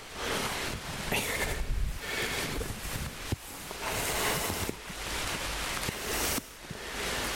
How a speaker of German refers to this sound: Jetzt regnet es ja doch.